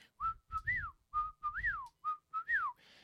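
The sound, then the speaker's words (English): A person whistles an imitation of a whippoorwill call, three quick repeated phrases, each a short note followed by a rising-and-falling swoop, loud with no talking. “a hot turkey in the spring, you know, you go out and you hear that whippoorwill starting out in the morning.”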